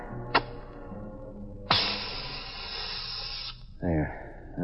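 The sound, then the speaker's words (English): A road flare is struck with a quick scrape and lit beside a railroad track in the rain, to be seen by an oncoming train's engineer, then bursts into a loud, steady hiss for about two seconds before cutting off; a voice briefly follows over soft background noise. “I'll light a flare here”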